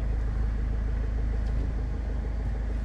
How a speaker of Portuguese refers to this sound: Onde eu estaciono o carro e vocês acompanham a minha rotina de estacionar o carro.